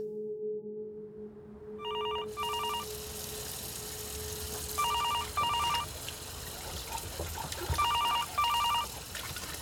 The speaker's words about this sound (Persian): اون گوشی رو برمیداری لطفاً